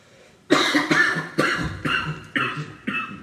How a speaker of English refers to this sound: Coughing and dying.